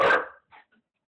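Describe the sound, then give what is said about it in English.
A mixed-breed puppy, a hound, pit bull and lab mix, lets out one sharp, fairly loud bark, followed by a short softer yip and a faint whimper trailing off. “I'm telling you, this puppy.”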